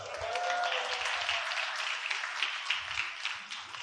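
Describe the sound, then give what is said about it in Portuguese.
A crowd applauds steadily, a dense wash of clapping hands that holds fairly constant for a few seconds, with a faint voice briefly audible at the start. “Salva de palma”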